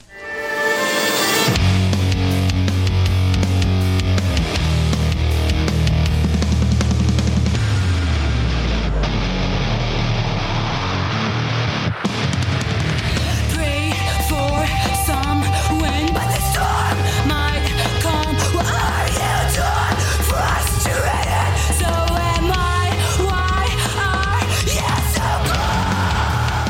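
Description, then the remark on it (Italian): Loud, dense metal music with female vocals: heavy distorted instruments fill the whole stretch, and a wavering sung vocal line rises over the wall of sound in the second half. “È una band eh, metal, come state ascoltando, voce femminile”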